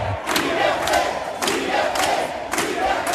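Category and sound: crowd, protesters chanting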